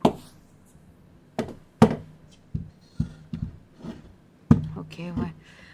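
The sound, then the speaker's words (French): A chair is set down on a table: a series of hollow wooden knocks and thumps at uneven intervals, with a louder clunk near the end and a brief voice sound. “Tiens, euh, aide-moi à mettre la chaise sur la table.”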